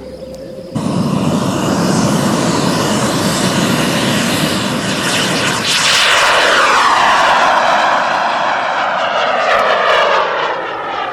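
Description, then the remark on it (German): A small kerosene-powered jet turbine on a 5.7 kg pink plastic model jet plane roars loud and steady during a speed world record attempt, its high whine rising and sweeping in pitch as it passes by, with no one speaking. “Einen klitzekleinen kerosinbetriebenen Strahltriebwerk.”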